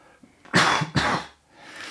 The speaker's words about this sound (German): Genau, um, um das Husten, genau. Also ihr werdet das heute noch äh, öfter hören.